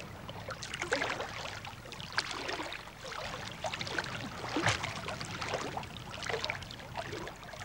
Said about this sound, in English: Nearby is another kind of fumarole, which required a little ingenuity to get to. Swimming along here, the water's quite warm. It's very pleasant, but I've just put my feet down to some gelatinous gunk. It feels horrible.